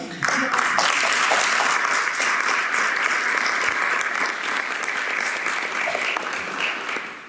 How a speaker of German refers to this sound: Ja. Mit diesem Applaus äh, verabschieden wir